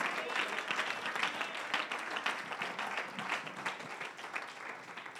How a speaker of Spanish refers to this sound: De un aplauso al Señor si alguien aprecia las cosas de Dios.